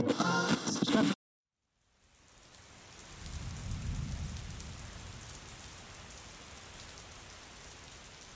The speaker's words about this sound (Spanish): Son las 7 de la noche y la lluvia no da tregua.